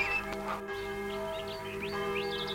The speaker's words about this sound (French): Tout à coup, on entend les cloches des églises de la vallée environnante.